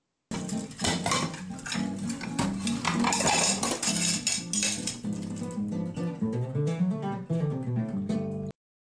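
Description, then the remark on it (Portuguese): Dishes and cutlery being washed clatter and clink nonstop, with dense rapid knocks and ringing tones that grow busier in the middle and then ease off slightly. No one speaks. “mas a gente vai chamar a louça, a gente vai lavar a nossa louça da semana.”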